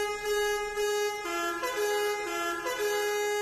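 A loud vehicle horn blares continuously for a few seconds, its steady tone shifting pitch slightly partway through, sounding close and with no talking over it.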